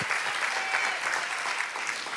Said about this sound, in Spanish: Te alabamos, Señor. Dele fuerte aplauso al Espíritu Santo de Dios en esta mañana.